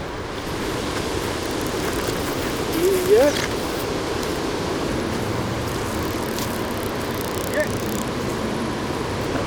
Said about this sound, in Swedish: blåser rejält nu.